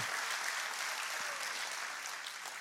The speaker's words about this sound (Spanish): Así es que apláudale fuerte al Señor.